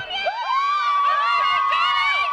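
A crowd of hundreds of Johnny Depp fans cheers and shouts his name outside the courthouse, waiting at the exit of his trial to support him. High excited voices and whoops overlap in a sustained, loud roar with no single voice standing out.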